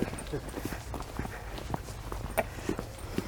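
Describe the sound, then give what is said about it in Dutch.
Irregular footsteps of walking legs thud and scuff, a steady series of soft impacts over a few seconds, with faint background murmur underneath. “Jij wou even het geluid van eh, de benen die door.”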